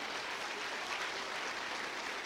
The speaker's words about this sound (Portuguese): Glória a Deus, bate uma salva de palmas para o Senhor, irmãos.